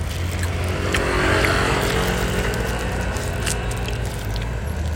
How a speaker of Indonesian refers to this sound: penjual pentol lewat